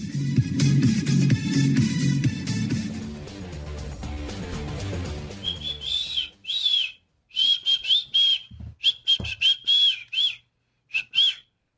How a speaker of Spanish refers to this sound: Muy desganado ese chiflido.